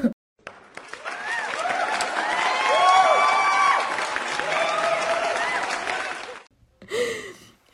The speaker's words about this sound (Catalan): De veres, de veres. Un, un fort aplaudiment. Insertar sonido de aplauso.